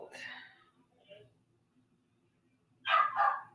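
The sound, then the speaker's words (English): A dog barks twice in quick succession near the end, loud, after an earlier softer yelp and a faint sound in otherwise quiet surroundings. “Um, shut up, dog.”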